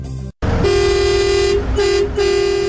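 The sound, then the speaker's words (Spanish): A loud truck air horn blares in three long, steady blasts separated by brief gaps, dominant, with a rumbling engine underneath. “Si te identificas con este sonido es porque eres camionero”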